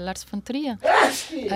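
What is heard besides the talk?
sneeze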